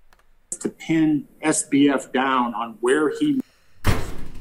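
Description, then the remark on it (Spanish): A man talks steadily, then after a short pause a door slams shut with a single loud bang that rings briefly before fading. “Ay, güey, perdón, se cerró la puerta.”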